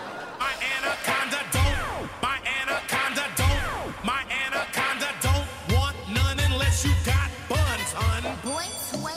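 A hip-hop track plays loud and full, with a punchy, repeating bass beat under a rapped vocal line that swoops and slides in pitch.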